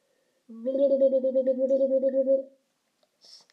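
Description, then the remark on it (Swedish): A child makes a wet, bubbling noise with the mouth, imitating a coffee cup, a voiced, fluttering burble lasting about two seconds, fairly loud, followed by a brief soft hiss. “Ett barn lärde sig göra kaffekoppen och bubblade.”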